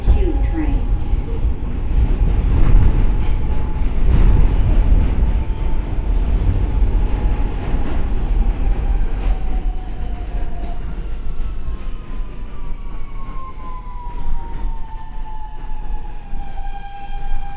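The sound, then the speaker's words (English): A Brooklyn-bound N Express subway train at 57th Street, 7th Avenue roars along, a loud steady rumble of wheels and carriage noise with high whining motor tones that slide down in pitch as it runs. “is a Brooklyn-bound N Express train.”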